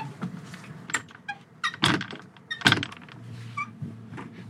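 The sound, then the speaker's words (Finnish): A door on an old, run-down boat creaks and scrapes as it moves, with two heavy clunks partway through and short squeaky groans in between, against a low background rumble. “Kuunnella narisee, nariseeko toi ovi?”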